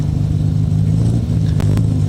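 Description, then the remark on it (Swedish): A pink Porsche's engine rumbles loudly, its deep throaty tone held steady with a slight rev, filling the short stretch without any voices. “Och så har vi då en, en rosa Porsche.”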